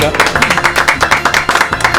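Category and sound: crowd, applause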